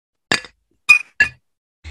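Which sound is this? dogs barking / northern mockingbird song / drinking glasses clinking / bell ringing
drinking glasses clinking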